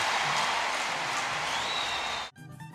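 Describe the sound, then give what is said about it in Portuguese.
A dense, steady roar of a large crowd clapping and cheering for gymnast Daiane during her presentation fills most of the moment, with a thin whistle rising through it, before cutting off abruptly into quieter tonal sound. “A torcida aplaude e grita: Daiane, Daiane, Daiane.”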